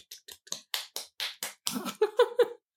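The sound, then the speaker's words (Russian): Thin, sparse applause sound effect, inserted by the speakers: about a dozen separate handclaps patter out over two and a half seconds, with a short pitched tone sounding under the last few claps before it stops. “Вау, подставить аплодисменты.”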